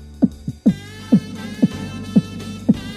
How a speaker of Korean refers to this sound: 모습을 바라보면서 저도 모르게 침을 꿀꺽 삼켰고 심장 박동이 빨라졌습니다.